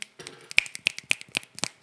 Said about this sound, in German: Ich tue einfach schnipsen. Das tönt ja, wie schnips.